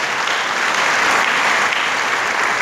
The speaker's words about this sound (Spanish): Déselo al Señor ese aplauso, por favor, si se lo va a dar.